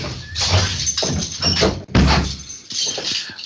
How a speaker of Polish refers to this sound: Tylko wiesz co, ja tu chyba mam może drzwi zamknąć. O. Zamknę drzwi i może już nie będzie echa, wiesz?